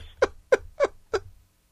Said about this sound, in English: Dude, I, I, was like, oh yeah, NBA Live 14 is exclusive to the PlayStation 4 and Xbox One, and all I heard were crickets. Crickets.